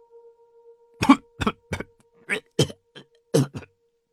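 Harsh, violent coughing in a rapid, uneven string of about eight loud bursts, some doubled, with a faint steady hum underneath and no talking, as a man sits up from the ground.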